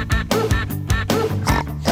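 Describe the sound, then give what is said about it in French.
A pig oinks in short repeated grunts, about four in quick succession, set to a bouncy musical backing that plays steadily underneath. “Fait le cochon.”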